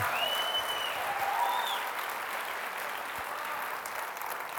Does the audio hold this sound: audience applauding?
yes